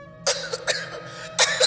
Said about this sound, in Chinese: 我这电话费可不是用来听你咳嗽的